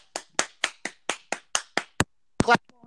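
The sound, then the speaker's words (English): A quick, steady run of about nine sharp, fairly loud hand claps, followed by a brief burst of voice at the very end. “clap off.”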